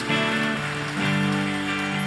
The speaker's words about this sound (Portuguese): Em o nome de Jesus, pode aplaudir aquele que é santo e que é digno.